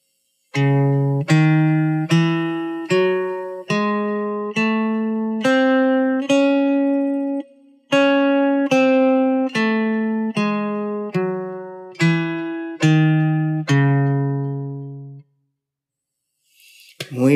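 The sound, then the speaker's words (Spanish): A C-sharp harmonic minor scale (C#, D#, E, F#, G#, A, B#, C#) played with steady, sustained synthetic tones, eight notes climbing and then eight descending in an even rhythm, clear, with no talking. “Muy bien, vamos ahora con la escala de Do sostenido menor armónica.”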